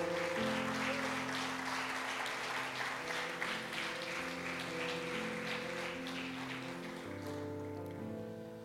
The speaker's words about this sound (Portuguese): Aleluia, aplauda o Senhor Jesus.